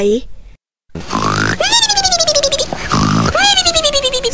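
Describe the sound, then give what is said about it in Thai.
A voice imitates the king of the elephants snoring loudly while asleep under a large sai tree in very cold weather: two long, rattling, grunting snores, each a gravelly rasp that swells into a wavering, nasal groan, loud after a brief silence. “วันหนึ่ง ราชาช้างนอนหลับอยู่ใต้ต้นไซใหญ่ อากาศหนาวมาก จนช้างกลนเสียงดังสนั่นหวั่นไหว”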